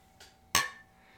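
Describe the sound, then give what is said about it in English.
King Cobra beer bottles clink together in a toast: a soft tap followed by one sharp glassy knock that rings briefly before fading, with no voices. “Um, so, and to celebrate, kind of to kind of kind of go with that, we have our King Cobras here. So, cheers.”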